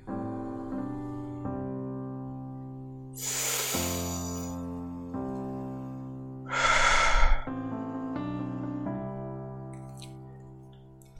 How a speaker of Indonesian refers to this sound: Tarikan nafas yang tadi mungkin jadi wakil yang kita rasain saat ini. Gak bikin masalah selesai, tapi at least diri sendiri bisa sedikit tenang.